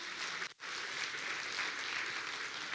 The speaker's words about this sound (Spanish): Dele palmas al Señor.